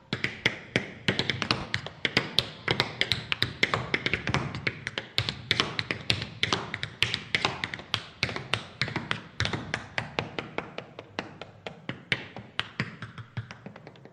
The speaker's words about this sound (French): Alors on va entendre juste quelques instants de Fabien Ruiz aux claquettes.